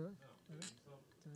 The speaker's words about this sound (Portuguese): um brinde, um brinde.